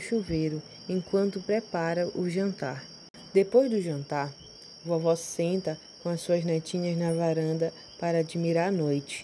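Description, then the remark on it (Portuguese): Night insects chirp in a steady, high-pitched drone that runs through the whole scene, fairly faint and constant beneath a woman speaking calmly in the foreground. “Os animais e insetos noturnos começam a sua cantaria.”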